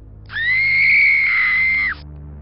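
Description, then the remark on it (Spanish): A single loud, piercing supernatural shriek, heard throughout a bedroom, holds one steady high pitch for about a second and a half, then cuts off abruptly. It sounds eerie and unnatural, with no talking around it. “Mientras un alarido sobrenatural se escuchaba por toda la habitación.”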